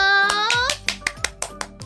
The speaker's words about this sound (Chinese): 哇，小朋友，我们来帮他们拍拍手。